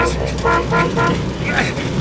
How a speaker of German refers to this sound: Hupen, Bob! Hupen! Ja. Wir müssen auf uns aufmerksam machen!